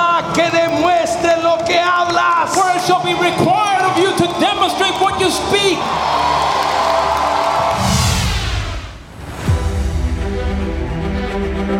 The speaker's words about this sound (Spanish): Un aplauso Jesús. Give Jesus a hand clap. Dale un grito de victoria.